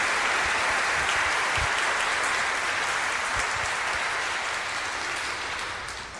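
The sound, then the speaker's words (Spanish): Sustained applause from a sizable crowd at a church gathering, given in gratitude to a monsignor for his presence: dense and steady clapping filling the space for several seconds before starting to taper off slightly at the end. “un aplauso de gratitud a Monseñor Germán por su presencia”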